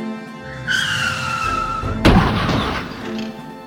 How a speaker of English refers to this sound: Blackwater swerved the car, just barely making the turn. Street Boss's men crash into the trees.